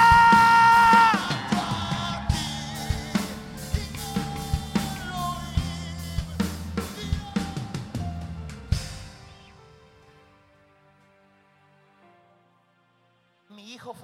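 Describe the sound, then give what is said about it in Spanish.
A crowd of people shouts and yells together loudly, with sharp rhythmic bursts, for several seconds before the noise fades away into near silence, with a brief outburst right at the end. “Yo dije, alguien tiene que gritar.”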